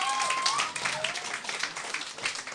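An audience bursts into steady applause welcoming a guest onto the stage, dense overlapping claps with a few cheers and whistles rising above the crowd noise.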